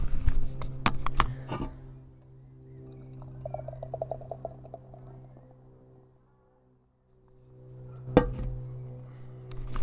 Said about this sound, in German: Aber ich würde sagen, machen wir die Dose auf und schenken wir mal was ins Glas ein.